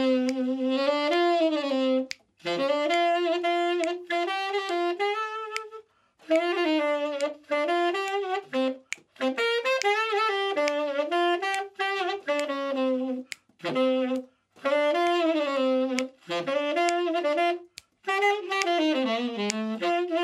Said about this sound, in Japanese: じゃこのかっこよさは僕のこの指パッチンちょっとダサかったけどもうめちゃくちゃかっこいいサックスが 響きましたよ